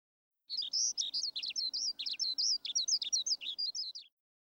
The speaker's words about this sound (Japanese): あ、鳥の声が聞こえます。